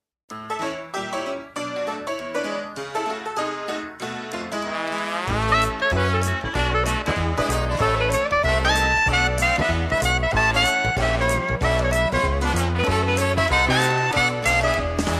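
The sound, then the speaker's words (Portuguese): A song sung by a female vocal quartet, opening with a lighter instrumental intro before a full band with heavy bass and steady beat kicks in, loud and continuous throughout. “Essas mulheres que cantam são quatro hum, mulheres.”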